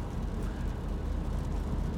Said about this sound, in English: If you wonder, this dribbling noise, it's raining.